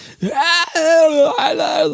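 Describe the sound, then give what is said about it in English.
A lone voice sustains a few sung, wavering tones that strain and rise into a raw, scream-like wail, loud, over about two seconds. “screaming.”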